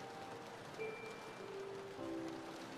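A steady, dense wash of heavy rain hisses continuously throughout, fairly soft and even, with faint sustained musical tones drifting underneath and no one speaking.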